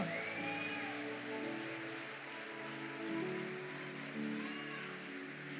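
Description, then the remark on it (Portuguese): Sustained crowd applause given to God, a dense, steady patter of clapping lasting the whole stretch, with raised voices and tonal cheering mixed in beneath it. “Se você crer nisso, aplauda ele.”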